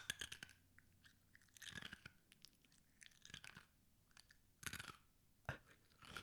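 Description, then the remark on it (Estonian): Crisp ASMR crunching of an ice cube being chewed, with several irregular loud bursts of cracking and grinding separated by quieter chewing, and no talking. “see on jumala mõnus kusjuures see oli minu jäätüki söömise asmr”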